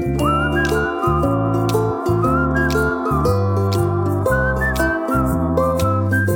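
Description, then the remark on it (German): Someone whistles a wavering, cheerful tune over steady, chord-like instrumental backing that pulses in short blocks, continuing without pause for several seconds with no talking. “Pfeif noch ein bisschen weiter.”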